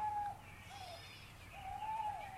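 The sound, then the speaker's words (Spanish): Birds call in two clear bouts, thin whistled notes rising and falling over a soft low background rumble, with a brief pause between them and no voices. “Descubrí también con alegría que algunos sonidos que escuchaba provenían de unos animalitos cubiertos de plumas.”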